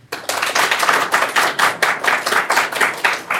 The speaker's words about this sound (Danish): så dem, der synes, at vi skal, i stedet skal læse Joe Waltons Among Others, de skal klappe nu.